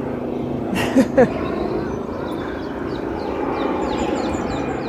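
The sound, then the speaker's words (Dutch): A steady, broad engine rumble of an airplane passing overhead hangs over the whole scene as rain eases, with birds chirping faintly and two brief knocks near the start. “Nou, daar hebben we gelukkig weer een vliegtuig.”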